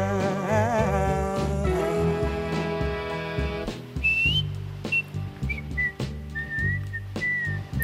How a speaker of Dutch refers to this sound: deze strofe was nog niet helemaal af. Dus uh, deed hij maar een fluitende strofe. En het maakt het nummer alleen nog maar beter.